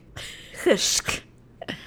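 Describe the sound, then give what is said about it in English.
A single sharp sneeze, preceded by a quick intake of breath and followed by a soft, brief sniff, with no talking. “Bless you.”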